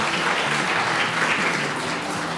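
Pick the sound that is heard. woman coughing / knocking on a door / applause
applause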